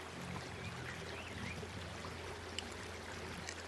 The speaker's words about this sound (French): que l'eau s'écoule doucement, calmement.